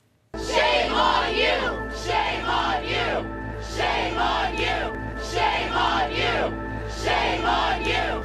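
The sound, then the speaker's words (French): A large crowd of students chants in unison, shouting the same short phrase over and over in a steady, driving rhythm, loud and sustained throughout. “Oui, je voudrais qu'on entende ben, d'abord la, foule d'étudiants”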